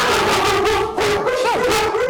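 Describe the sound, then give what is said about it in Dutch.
Two guide dogs barking excitedly in a rapid, continuous string of loud barks, with a brief whiny yelp partway through and no voices. “is jouw geleidehondje, hè? Of hondjes.”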